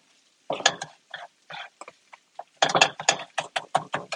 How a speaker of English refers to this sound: Still chopping. I want these to be pretty fine.